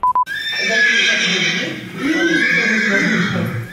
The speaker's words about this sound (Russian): Два года подряд, начиная с 2018-го, нижегородец Юрий Кондратьев изводил соседей звуками лошадиного ржания. Специально представлял мощные динамики к стенам и полу.